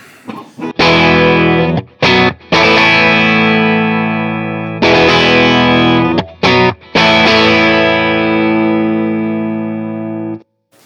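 Electric guitar through a brownface-style amp with reverb strums ringing chords in two phrases, each struck with a few quick choppy hits and then left to sustain and slowly fade. Loud, with no voices.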